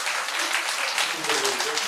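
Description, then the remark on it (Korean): A crowd applauds a speaker after a presentation with steady, dense clapping that stays at an even, fairly loud level throughout, with a faint voice murmuring underneath toward the end. “넓은 발표하셨으니 박수를 쳐드립시다.”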